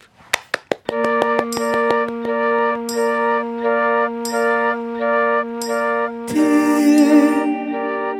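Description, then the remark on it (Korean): Live ballad intro of a singer's new song, the first in seven years, performed live: three quick taps count in, then soft sustained chords swell in steady, slow phrases, growing fuller and brighter toward the end. No singing yet. “7년 만에 나 나온 신곡이에요.”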